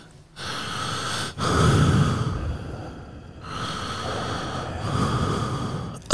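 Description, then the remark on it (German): Someone imitates the heavy, raspy breathing of an anonymous telephone caller: several long, loud inhales and exhales in a slow rhythm, with brief pauses between them and no talking. “Egal was das Telefon, wer das Telefon abgenommen hat, meine Oma, ihr Lebensgefährte oder ich oder ein anderes Mitglied der Familie, es wurde immer nur laut geatmet.”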